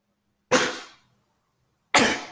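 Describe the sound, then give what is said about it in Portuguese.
Two sharp, explosive sneezes from a speaker during a Portuguese-language stock market report, about a second and a half apart, each a loud hissing burst that trails off quickly, with silence between them and no talking. “Perdão, tive que espirrar aqui.”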